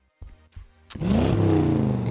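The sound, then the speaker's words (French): A voice imitates a car engine revving: a couple of short sputtering bursts, then a loud, sustained throaty roar that rises and holds, prominent with no other talk. “hey, un bruit de moteur.”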